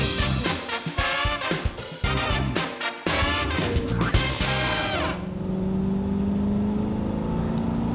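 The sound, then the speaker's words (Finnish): A two-litre OHC turbocharged Mazda car engine roars loudly while driving, rising and falling through revs for several seconds before settling into a steadier, lower drone. No voices are heard. “Kahen litran ohc-turbo”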